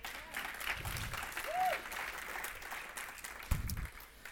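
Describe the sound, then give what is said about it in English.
A crowd of people claps their hands to the Lord in the morning, in a steady, dense wash of applause lasting throughout. A couple of low thumps and a brief voiced sound rise out of the clapping. “Come on, clap your hands to the Lord this morning.”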